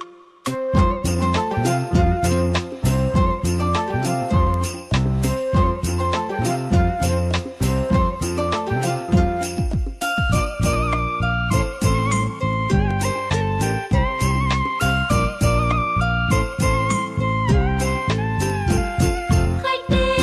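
A Vietnamese song performed by a female vocal group, with bright melodic lines over steady rhythmic accompaniment. It plays loud and continuous throughout, with a brief shift in texture midway.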